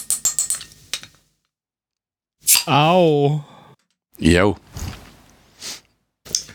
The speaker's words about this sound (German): Ich trinke noch einen Schluck